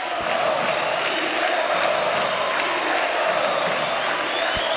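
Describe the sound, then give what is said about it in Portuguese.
A huge football stadium crowd of 13,769 fans at the arena roars and cheers in a dense, unbroken wash of noise, loud and steady throughout, with scattered shouts and whoops rising out of the din, at a Grêmio match in 2020. “13.769 torcedores estiveram presentes na arena para ver o melhor jogo do Grêmio neste ano de 2020.”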